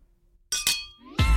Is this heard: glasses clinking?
yes